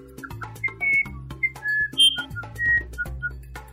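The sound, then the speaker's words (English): A whistled imitation of wren song: a quick string of short, bright chirps and trills, some rising and falling, played over a soft, steady low musical backing. “Winnie sang and sang as the sun rose early in the morning.”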